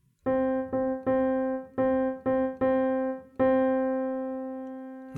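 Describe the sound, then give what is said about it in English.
A pitched keyboard tone plays a rhythmic pattern with eighth notes on counts one and three: quick pairs of short notes followed by longer held ones, repeating twice before ending on a long sustained note. Clear, with no talking. “Instead of placing our eighth notes on count two and count four, we're going to place our eighth notes on count one and count three. So the pattern sounds like this”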